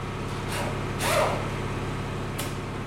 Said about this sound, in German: Also am Auto rumschrauben, oft auch so richtig Gas geben. Also da ist so eine Kfz-Werkstatt und meistens viel Gas geben und dann rumschreien danach.